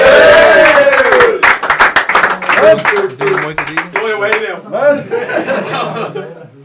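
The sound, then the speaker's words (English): A live audience breaks into applause, a dense patter of many hands clapping over whoops, chuckles and excited voices, loud and close, thinning toward the end as cheering and chatter take over. “Give him a, him a round of applause.”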